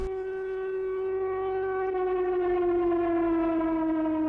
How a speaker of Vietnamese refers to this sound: đồng bào thủ đô chú ý hiện nay đã có báo động đồng bào cần bình tĩnh và nhanh chóng vào hầm trú ẩn